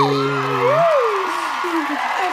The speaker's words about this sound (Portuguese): Bota uns gritinhos, Gente, foi, foi sensacional.